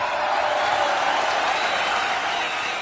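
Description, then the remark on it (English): A crowd applauds steadily for a performer, an upcoming hip hop artist from Kempton Park on the east side of Johannesburg: a dense wash of many hands clapping at an even, loud level that holds for the full few seconds without any voices standing out. “Let's give him a round of applause, ladies and gentlemen.”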